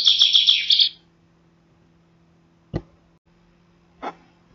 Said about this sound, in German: Schließlich Buchfink 10 Minuten vor Sonnenaufgang.